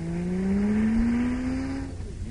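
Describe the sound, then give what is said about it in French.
The engine of a Toyota, a Japanese car, revs upward in a steady rising whine, loud, holding for about two seconds before easing off. No one speaks. “Une voiture japonaise.”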